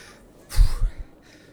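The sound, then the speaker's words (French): A brief burst of out-of-breath panting from a man who has just run around the block: two quick, heavy, breathy exhales, with quiet before and after. “Il arrive à son niveau, un petit peu essoufflé.”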